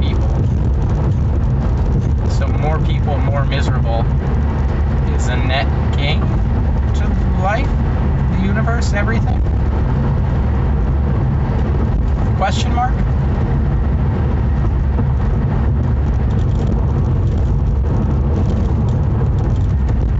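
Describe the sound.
Steady low road rumble and engine drone from inside a moving car, continuous and fairly loud throughout, with faint indistinct voices now and then beneath the noise.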